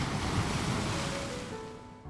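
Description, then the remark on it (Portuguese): Steady roar of ocean surf washing onto the shore in late afternoon, a broad continuous rush that eases slightly toward the end, with a touch of wind; no voices. “num final de tarde à beira-mar,”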